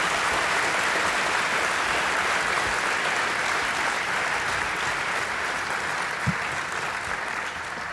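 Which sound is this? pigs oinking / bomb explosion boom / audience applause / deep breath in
audience applause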